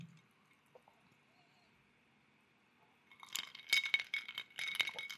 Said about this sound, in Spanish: Aquí pueden escuchar ese sonido de los hielitos ahí este, chocando en el, en el vaso.